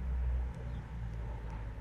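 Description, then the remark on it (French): A Transall military transport aircraft on a night training flight drones steadily in the sky over a military base, a deep, continuous low rumble that stays loud and even throughout, with no voices. “Dans le ciel, le bourdonnement familier pour les occupants de cette base d'un avion de type Transal se fait entendre.”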